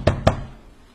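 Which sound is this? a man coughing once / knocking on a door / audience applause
knocking on a door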